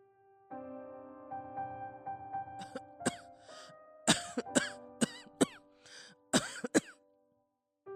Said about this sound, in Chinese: 就听到房里传来阿嬷的咳嗽声，而且越咳越厉害。